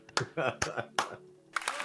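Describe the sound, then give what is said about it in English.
A few sharp hand claps in an irregular pattern, fairly loud, clapping out the end of a show, mixed with voices and laughter in the background. “Let's clap it out.”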